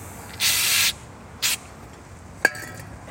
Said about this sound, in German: Was war das für ein schönes Spray? Ähm, Bremsenreiniger, weil die ist mir gerade runtergefallen, die verölte Schraube.